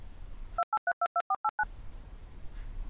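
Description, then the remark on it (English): A rapid run of eight short, evenly spaced electronic beeps, like telephone keypad tones, sounding crisp and clear before faint background hiss returns; an editor's tone marking where a segment of recording has been removed. “Whenever this happens, you'll hear our editor's tone”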